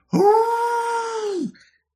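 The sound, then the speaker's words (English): A single deep, sustained creature howl rises quickly, holds a steady moaning tone for over a second, then drops off and fades, loud and alone with no talking. “And then with that, a deep howl from deep within itself”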